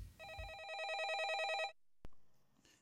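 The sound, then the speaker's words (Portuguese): A telephone rings once as the last caller comes in on a Portuguese-language call-in program: a steady electronic warble rapidly alternating between two high pitches for about a second and a half, then a sharp click and quiet hiss. “E agora estamos a ouvir a última chamada.”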